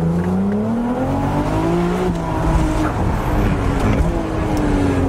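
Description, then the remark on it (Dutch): A 3-litre, 663 hp V6 production car engine, its equal-length exhaust manifold pipes merging at one point and exiting through the rear bumper, drones loudly and steadily, its pitch rising and shifting as the engine revs under load, with a raspy, throaty character and no talking. “Beetje Golf VR6 R32-achtig, maar ja, het is ook een V6, dus dat klopt natuurlijk wel.”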